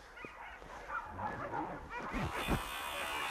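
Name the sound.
sled dog barking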